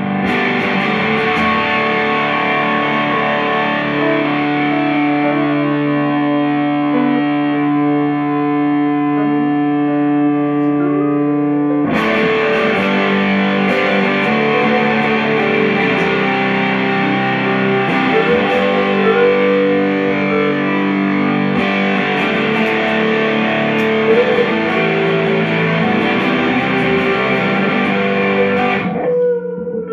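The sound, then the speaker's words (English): A heavily distorted, fuzzy electric guitar played through a fuzz pedal on its Rams head setting sustains thick, buzzing chords, including a G chord, loud, with a sudden chord change partway through and no talking. “Well, this is on the Rams head setting.”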